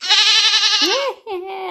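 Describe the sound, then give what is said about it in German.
A goat bleats twice, first a long, loud, quavering call, then a shorter wavering bleat after a brief pause. “Das war eine Ziege.”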